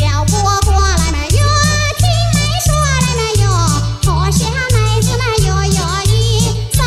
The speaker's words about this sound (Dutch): Ik heb namelijk een uh, Chinees liedje wat ik echt heel erg leuk vind. Dat klinkt zo. En ik weet niet wat ze zingen.